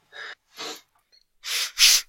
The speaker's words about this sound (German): Ja, da müssen wir nochmal schniefen. Ne? Dann wird's noch glaubwürdiger.